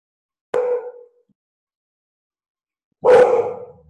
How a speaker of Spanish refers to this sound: Ay, perdón, es mi perro.